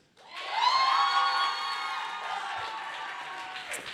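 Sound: audience cheering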